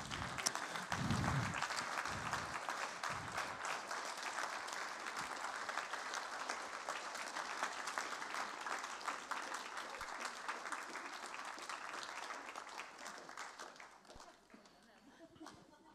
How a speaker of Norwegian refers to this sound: Det, kan vi ikke reise oss, og så klapper vi for … mens de går ned? Er ikke det fint?